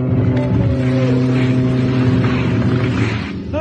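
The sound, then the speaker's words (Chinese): A young man blows a black ox horn, worn on his chest, in one long, loud, unbroken note with a rich, buzzy, low tone that holds steady for several seconds, wavering slightly before easing off at the end. “那个青年拿起胸前的黑牛角吹了起来。”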